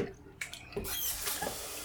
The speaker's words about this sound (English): So we've got about a minute left, and after that we'll be doing another washing. So I'm going to pour turn some water on.